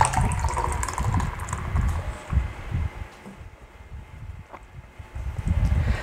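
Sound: drinking beer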